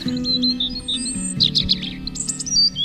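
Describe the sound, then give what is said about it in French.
Small birds chirp and twitter in quick, high bursts that overlap one another, set against a steady low rumble in the background, with no one speaking. “Des arbres, euh, une petite forêt, des petits oiseaux qui chantent, le soleil, les nuages.”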